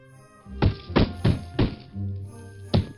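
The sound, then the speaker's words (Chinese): A fox's big tail thumps against a wooden floor at bedtime: four dull, low knocks in a fairly steady rhythm, a short pause, then one more thud, with no talking. “用大尾巴在地板上咚咚的敲起来。”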